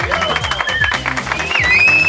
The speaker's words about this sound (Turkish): Öğretmenler için bir alkış alayım.